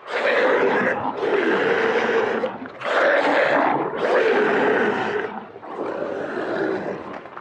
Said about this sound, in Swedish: Jag hörde deras bestialiska vrål ur deras strupar och det lät inte mänskliga.